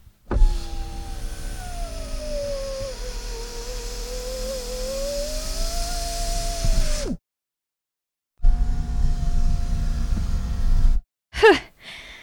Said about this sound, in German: Oder ein elektrischer Fensterheber Hört selbst den Unterschied.